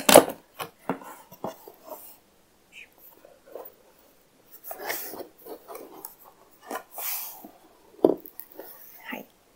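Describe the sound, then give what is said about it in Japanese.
Irregular rustling, scraping and soft thuds as a boxed microphone is unpacked, with cardboard and wrapping handled in short bursts separated by brief pauses. “ということで、では開けてみようかなと思います。”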